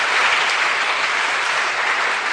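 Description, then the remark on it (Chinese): An audience applauds steadily at the Changhua Theatre Arts Festival in Taiwan, welcoming the heads, playwrights and producers of five theatre troupes: a dense wash of many hands clapping at an even, loud level throughout, with no voices rising above it. “那今天呢，五大剧团，哇，我们的团长、编剧、制作人等等，全部到齐了，热烈掌声再给他欢迎一下。”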